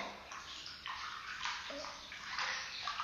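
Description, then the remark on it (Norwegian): Water sloshing and splashing in a small, fairly shallow bathtub of warm water as someone climbs in, a continuous swirl of movement with bursts of heavier splashes, no talking. “Og så går jeg oppi. Sånn. Ja. Skal vi se. Oi! Deilig eh, varmt vann.”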